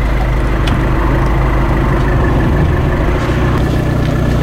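vehicle, car engine running

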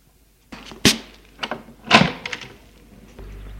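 household object, door being opened

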